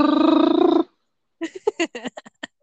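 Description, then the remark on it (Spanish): A voice imitates a ringing telephone, as if someone is calling, with a single buzzy, trilled tone lasting under a second, followed after a short pause by a few quick spoken syllables, clear. “Como si fuera una llamada. Suena el teléfono, tú me estás llamando.”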